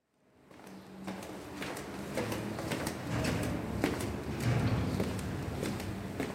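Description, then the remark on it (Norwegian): Steady, sharp clicks of a female judge's high-heeled shoes walking with determined steps at a brisk, even pace down a corridor of a terrorism court in northern Syria, echoing slightly against a low ambient hum, with no one speaking. “Dommer Nasrin går med bestemte skritt gjennom korridoren.”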